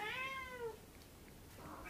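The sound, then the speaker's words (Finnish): A single cat meow, a drawn-out tone that slides downward and fades after about half a second, heard alone against faint background noise with no talking. “Kuules Katti, mitä sä täällä teet?”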